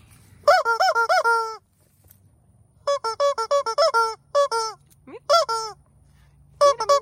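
A squeaky toy duck, shown to pets including Tejas at a stable, honks loudly in quick clusters of nasal squeaks, several rapid honks at a time with short pauses between bursts, over faint background hum.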